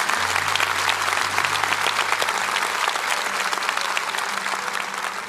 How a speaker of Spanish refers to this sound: Allá, bien atrás, hay alguien levantando las manos, un par de personas. Denles un buen aplauso a todos ellos.